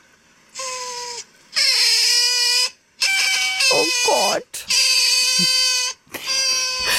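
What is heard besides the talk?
otter vocalizing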